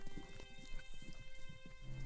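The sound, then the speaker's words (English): Horse hooves clip-clop in a steady, even rhythm at moderate loudness as Lou arrives on the back of his horse, with a sustained humming tonal background beneath them and no one talking. “A flash of light abruptly comes to a halt and is replaced by Lou on the back of his horse, smiling as if he has just encountered some old friends.”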